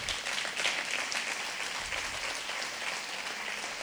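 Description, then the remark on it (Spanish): An audience breaks into steady applause, many hands clapping in a dense, continuous patter that holds at an even level for a few seconds with no voices over it. “Pero como somos, Denle den un aplauso a su”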